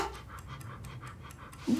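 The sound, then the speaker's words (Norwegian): A dog in a bedroom pants quickly and steadily, about eight short, breathy huffs in under two seconds, fairly quiet, ending with a brief higher-pitched whine-like sound. “Hvor mange ganger må jeg si til deg at hunder ikke har noen ting på et soverom å gjøre?”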